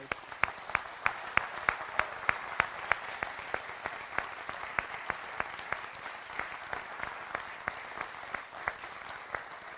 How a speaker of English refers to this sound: If anybody in the room has is in the military or has served in the military, would you mind standing up right now? We just want to clap for you guys.